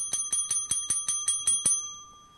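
A small hand bell rings rapidly, about nine quick clanging strikes in a steady rhythm, bright, then its metallic tone fades away on its own with no voices.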